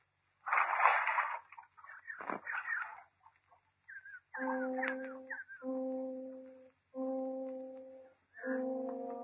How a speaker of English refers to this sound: You have just been within earshot of a drowning. Not such a drowning as will cause shouts of alarm throughout the world, nor even a headline.